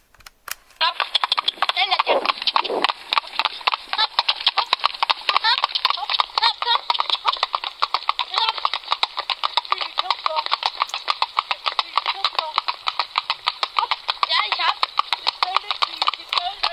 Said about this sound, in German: Und da hörte dann so eine Mischung aus Schritt und Trab und ein bisschen Tölt.